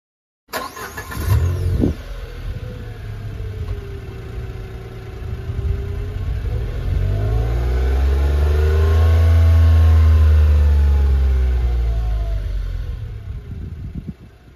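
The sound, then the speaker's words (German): The naturally aspirated 1.2-litre three-cylinder petrol engine of a small Space Star car starts with a brief burst, idles, then revs up in one long smooth rise and falls back toward idle, fairly loud with no talking. “Der Space Star wird angetrieben durch einen Dreizylinder Ottomotor, also einen Benziner, 1,2 Liter Hubraum, ein Sauger.”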